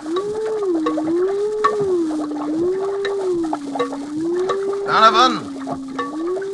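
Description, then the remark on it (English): Brain delta waves rendered as sound: a low electronic tone slowly warbling up and down in pitch, steady, over a bed of crackling static, with a brief brighter burst near the end. “If I were able to cause a distinctive pattern of the brain's delta waves by a specific command in code”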